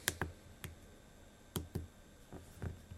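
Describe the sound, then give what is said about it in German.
Keys on a hardware keyboard being pressed as someone tries out the keys, including Shift pressed together with a letter key, about eight quiet, sharp clicks in an irregular, unhurried rhythm with short pauses between them, without any talking. “Okay, Shift und die Taste muss man dann doch gleichzeitig drücken.”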